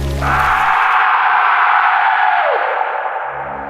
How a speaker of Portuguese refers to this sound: Morgoth deu então um grito terrível que ecoou pelas montanhas.